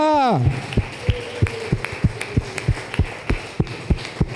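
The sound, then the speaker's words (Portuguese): An audience claps for Jesus in a steady, even rhythm, sharp claps landing roughly three times a second after a brief falling voice at the start, with a low murmur underneath. “Aplauda Jesus, porque Ele é o Deus da tua casa.”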